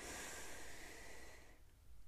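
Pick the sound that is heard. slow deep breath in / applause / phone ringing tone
slow deep breath in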